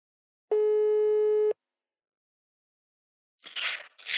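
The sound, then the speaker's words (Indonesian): A telephone ringing tone sounds once as a steady electronic beep lasting about a second while a call is being placed, followed by silence and then a couple of short, breathy noise bursts near the end. “langsung aja kita telepon jakanya ya, agar kita bisa dengar ceritanya”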